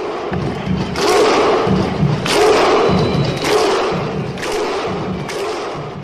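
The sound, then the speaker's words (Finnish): The Icelandic football fans' 'huh' chant: a large crowd clapping and shouting 'huh' in unison at a steady pace, about once a second, with deep thuds and crowd roar between beats. “Mutta muuhun ei tämä Islannin hu ole siis toisin sanoen ihan se hirveästi auttanut.”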